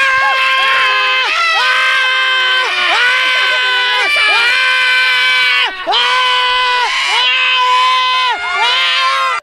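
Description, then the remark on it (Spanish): A Metroplex crowd screaming and cheering on learning of a return, loud and high-pitched, with long sustained shrieks that rise and fall in repeated waves for about nine seconds without a break. “Es el grito que tiró todo el Metroplex cuando se enteraron que eran de la chocolata.”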